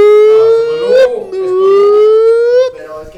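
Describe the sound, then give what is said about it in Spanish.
A person's voice imitates the alarm siren of an asylum with two loud, sustained wails, each slowly rising in pitch before breaking off, the second wail longer than the first. “De todo el pinche manicomio empiezan a sonar las alarmas.”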